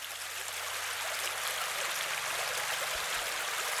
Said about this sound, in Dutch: En in de lange vliet zit een stuw. Bij die stuw valt het water een stukje naar beneden.